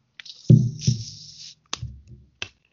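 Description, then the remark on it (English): A fizzy drink can snaps open with a sharp crack and a burst of hissing carbonation lasting about a second, followed by a couple of short metallic clicks, otherwise quiet. “I don't know if you can hear that, but that's the sound of a nice, delicious, fizzy can of whoop ass.”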